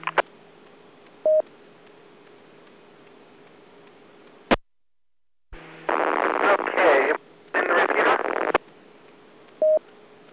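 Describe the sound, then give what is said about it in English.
A weak, hissy ham radio transmission comes through a repeater, with short tone beeps, a brief dropout to silence, then bursts of loud static-laden signal before a final beep. “Uh, you were not quite communication grade, but you were uh, making the repeater.”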